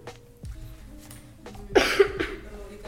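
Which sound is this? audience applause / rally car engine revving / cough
cough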